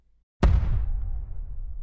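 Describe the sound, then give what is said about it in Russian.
A sudden loud explosion bursts out after a brief silence, followed by a long deep rumble that slowly fades, with no voices present. “То есть едешь за рулем – а потом бабах и до свидания.”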